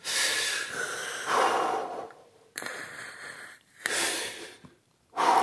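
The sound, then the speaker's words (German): Slow, deep breaths drawn in and pushed out in a steady rhythm by a person relaxing, each one a loud, airy rush, with brief quiet pauses between them and no talking. “Atmen, ja?”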